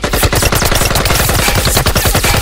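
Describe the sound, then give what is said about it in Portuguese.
A loud barrage of rifle shots fired in rapid succession into the ground, with sharp metallic ricochets pinging through the dense, continuous clatter. No voices. “Até ouvir os projéteis ricochetearem em um som metálico.”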